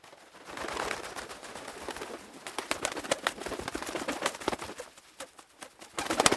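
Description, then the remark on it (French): Pigeons coo amid a steady flurry of fluttering, clattering sounds that grow busier and louder toward the end, with no one speaking. “Parce que les pigeons, c'est chiant.”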